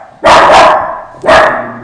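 A dog, Pippa, barks twice, loud, each bark a sharp burst with a short gap between them, and no voices alongside.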